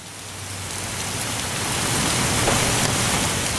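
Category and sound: nature, rain falling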